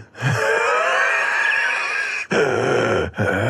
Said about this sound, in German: Ich röchel. Hörst du mich nicht? Wieso? Hört, echt hört man das nicht? Ich höre mich tierisch laut hier.